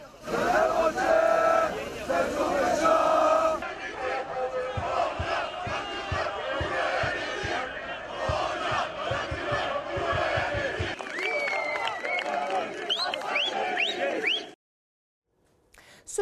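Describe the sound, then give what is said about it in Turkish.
A loud crowd of football fans at an airport chants and cheers continuously as they welcome their arriving team, with rhythmic clapping or drumbeats through the middle and shrill whistles rising near the end before it cuts off abruptly. “Takımlar havalimanlarına ulaştığında da büyük coşkuyla karşılandı.”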